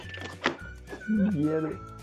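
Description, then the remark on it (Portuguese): A single sharp, heavy thump of a hand striking the camera, loud and abrupt, followed by a person talking over a low steady hum. “Ele deu uma porrada agora na câmera.”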